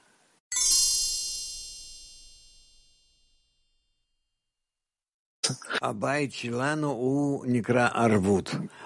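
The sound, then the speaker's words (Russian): A small hand bell rings once with a bright, clear strike, its shimmering tone fading away over a few seconds before a person begins talking. “Не знаю, может, позвонить или каким-то колокольчиком напомнить, что мы должны думать об общем успехе в объединении.”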